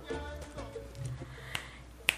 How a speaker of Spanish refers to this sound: Si ustedes hacen las palmas, esto es lo que sería el tempo, el tiempo, el tiempo va marcando.